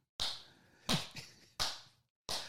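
One person claps slowly and deliberately, four sharp, crisp claps spaced evenly about two-thirds of a second apart. Each is loud and close, with a short ringing decay and no voices.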